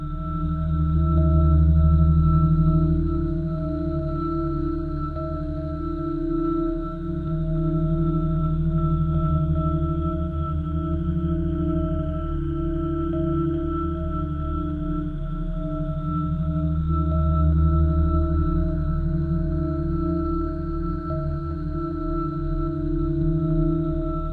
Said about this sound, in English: only time we visited was in 1986, and there are no missions planned to return. These sounds remain the only way we have to experience the ice giant other than images taken from Voyager and the Hubble telescope.